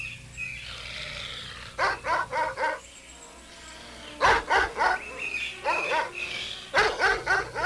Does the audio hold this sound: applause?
no